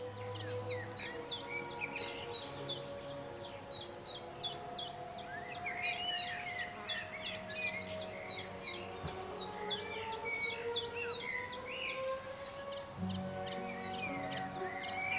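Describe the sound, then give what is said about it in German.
Birds sing from shrubbery as someone walks through the bushes of a palace park: one repeats a bright, steady chirp over and over while other calls twitter around it, with faint tonal music from an orchestra stage about 150 meters away humming low in the background. “Jetzt gehen wir ein bisschen durchs Gebüsch, man hört die Vögel und natürlich im Hintergrund immer noch die Musik.”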